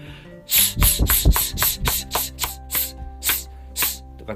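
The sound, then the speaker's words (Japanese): A voice makes a rapid series of short, crisp 's' hisses, about two per second, over a steady low musical backdrop: the fast pattern of a breathing exercise, each hiss crisp with the force released right after. “これをしっかりあの最初のあのパターン1をしっかり歯切れよくさっき言ったようにあのススはいですぐ力を抜くってことは大事ですねこのねこれがしっかり身につくとこの速くなっても”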